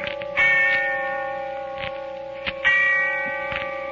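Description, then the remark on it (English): A heavy church bell tolls twice on All Souls Night in the darkness of early evening, each deep, resonant strike ringing out and slowly decaying into a long humming fade, with no voices present. “And the sound of the bell rolling away in the darkness of early evening.”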